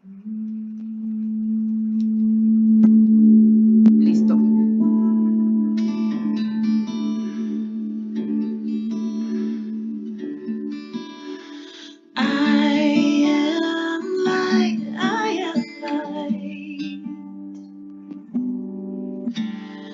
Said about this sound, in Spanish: Voy a ponerles musiquita, me avisan si la escuchan.